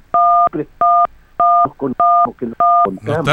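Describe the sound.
Five loud, steady electronic beeps, like phone keypad tones, intrude on a telephone line at a regular pace, each lasting about a third of a second, with bits of a person talking squeezed between them.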